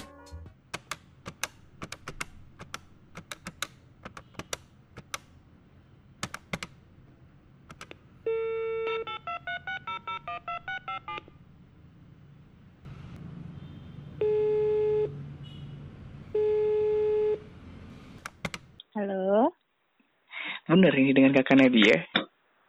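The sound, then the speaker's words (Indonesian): A phone is dialed to call a friend, with quick clicks and a burst of keypad tones, then steady ringback tones repeat in slow pulses before a brief warbling connection sound and a noisy electronic burst. “Jadi gue bakal ngebahas sama temen gue tentang itu dan so langsung aja kali ya gue telepon temen gue.”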